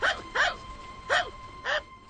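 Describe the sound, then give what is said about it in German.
A dog barks four times in short, sharp bursts, spaced roughly half a second apart with a brief pause before the third. The barks are clear, with no talking. “Tut mir leid, aber Hunde sind hier verboten.”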